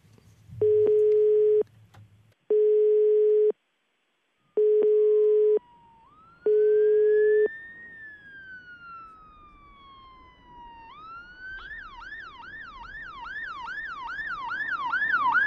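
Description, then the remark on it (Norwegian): Four evenly spaced telephone-style beeps give way to a siren-like wail that slowly sweeps, then breaks into a rapid warbling yelp, growing louder with no talking, heard on a phone line during a radio telephone interview. “Ja, der ble jeg tatt av politiet.”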